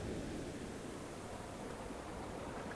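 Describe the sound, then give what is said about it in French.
A steady, dense rush of ocean surf rolling onto the shore, a continuous wash of water with no distinct breaks, heard alone without any voices. “Le bruit du roulement des vagues est hypnotisant, il calme les esprits.”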